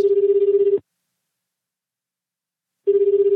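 A phone ringback tone heard on an outgoing call that goes unanswered: a steady buzzing ring, a long silent pause, then the ring begins again. It is clear and fairly loud, with no voices.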